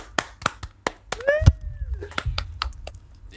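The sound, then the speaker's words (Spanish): Scattered, irregular hand claps from a small group, sharp and moderately loud, with a short high-pitched voice sliding upward midway through. “Un aplauso.”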